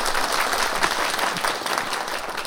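A crowd breaks into loud, sustained applause for two Breton guests, dense overlapping claps forming a steady wash of noise without pause or voices.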